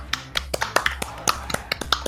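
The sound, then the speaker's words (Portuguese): A handful of people clap for a moment, about ten sharp, uneven claps with no voices, like brief scattered applause, given to the first-place winner of a betting contest as his prize. “Você ganhou um grande, uma grande salva de palmas.”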